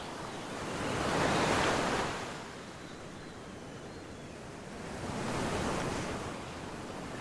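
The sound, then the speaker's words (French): Ocean waves wash in and pull back in a slow, steady rhythm, two broad swells of rushing surf rising and fading against a constant hiss of water, with no voices. “Lorsque tu sens que tu as terminé, lorsque le va-et-vient des vagues a apporté toute la guérison attendue, toute la guérison nécessaire.”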